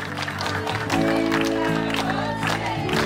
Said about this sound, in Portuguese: Os colegas se reuniram sorrateiramente no pátio e ele foi aplaudido pelos 15 anos de dedicação à empresa, diante também da própria família.